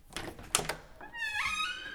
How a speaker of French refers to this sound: Un soir, quelque chose est venu rompre l'équilibre des jours tristes. Quelqu'un a frappé à la porte de ma chambre. C'était le réceptionniste de l'hôtel.